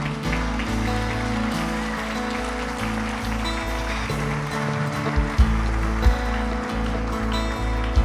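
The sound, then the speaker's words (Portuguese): A large crowd claps steadily and continuously for Jesus, a dense wash of applause, with low sustained musical tones underneath throughout. “Fique em pé, se você vai aplaudir, aplauda Jesus para valer mesmo.”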